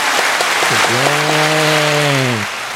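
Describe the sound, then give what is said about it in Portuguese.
Loud, steady applause welcoming a show's guest of the day fills the whole moment, with a long, low, drawn-out tonal call sounding over the clapping through the middle before cutting off near the end. “Então, uma grande salva de palmas para o nosso convidado de hoje.”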